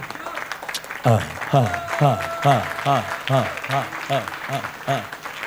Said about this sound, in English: May the Lord bless all those who are clapping.